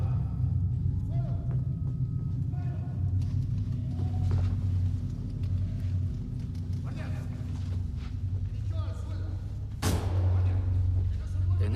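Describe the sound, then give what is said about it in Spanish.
A single loud, sharp bang like a gunshot cracks out near the end in the chamber, rising above a steady low rumble, scattered thumps and muffled background voices, as police and the Civil Guard enter. “estos momentos se ha oído un golpe muy fuerte. En la cámara, como un disparo, aunque no sabemos lo que es, Porque se, se, se ven la policía, la, la Guardia Civil entra.”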